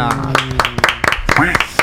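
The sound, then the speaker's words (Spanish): A short burst of the program's applause sound effect: about a dozen sharp, uneven claps that sound thin and sparse. Voices speak over the clapping throughout. “Eh, ay, los aplausos de este programa.”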